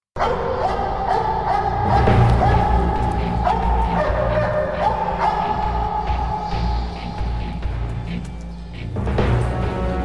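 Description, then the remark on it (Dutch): A large police tracking dog barks repeatedly and excitedly during a search, loud, with rapid bursts and a few whiny yips, over a continuous low rumble of background noise. “Maar goed, uiteindelijk kwamen ze er met die speurhond.”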